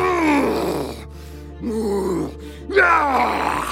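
A man groans and growls as if in pain, portraying a werewolf transformation, three strained, wavering vocal bursts with short breaths between them, the last one loudest.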